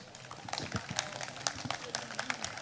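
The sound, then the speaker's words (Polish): A crowd in Kraków claps steadily as a guest, the Kraków mayor's plenipotentiary for climate education, is invited onto the stage, many hands producing a dense, moderate patter of applause that continues throughout without a break. “Proszę o brawa”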